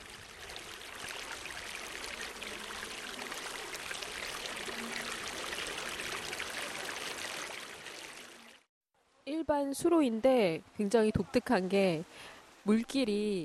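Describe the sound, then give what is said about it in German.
The Suwonchon river rushes steadily through the seven stone arches of Hwangmun Gate in the northeast of Hwasong Fortress, a dense, broad hiss for about eight seconds, then cuts off abruptly before a voice starts speaking. “Das Tor Hwangmun liegt im Nordosten der Festung und ist das erste Tor, durch das der Fluss Suwonchon fließt.”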